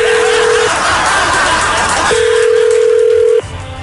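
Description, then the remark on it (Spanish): A telephone dial tone sounds while a call is being placed to a man, two long, steady mid-pitched beeps separated by a pause of over a second, over a constant bed of loud, hissy background noise. “Con esos datos le voy a marcar a él eh, para averiguar si te regaló el anillo de la ex o si te compro uno nuevo.”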